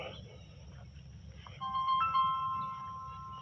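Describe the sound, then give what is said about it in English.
An electronic phone ringtone for an incoming call from a school starts partway through, a bright melodic tone repeating in short bursts over a low background hum, moderately loud. “Got a phone call from school.”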